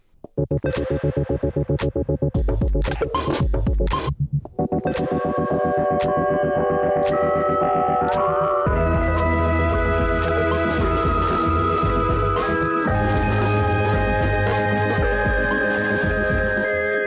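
Upbeat instrumental theme music of the show La Lumière dans le fond on Cause Commune 93.1, made by Elie Morzancal, plays loud with a steady rhythmic pulse and sustained chords that shift partway through; no voices are heard.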